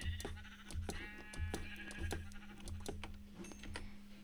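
A grey sheep bleats in a video game, a short wavering cry over a steady low hum, while rapid clicking taps repeat throughout the background.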